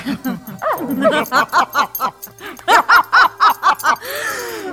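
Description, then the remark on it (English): A small female dog barks in a quick, rhythmic string of about a dozen sharp, high-pitched yips, ending with a drawn-out whine. “oh, the little doggy girl doesn't like it.”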